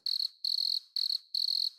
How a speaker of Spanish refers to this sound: Volvemos a los grillos.